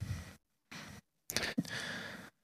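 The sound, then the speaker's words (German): Close-miked breathing: four airy, noisy breaths in and out, separated by short silences, loud and right up against the microphone, with no talking. “jetzt hast du geatmet.”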